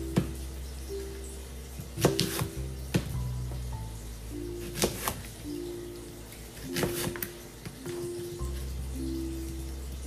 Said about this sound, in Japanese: 包丁の音を改めて包丁で切る音を聞いたんですけど結構ザクザクという音でちょっと怖い音でしたね自分の想像の中ではもっとトントントントントントンサクサクサクっていう感じだと思ってたんですけど